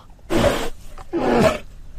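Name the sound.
bear roaring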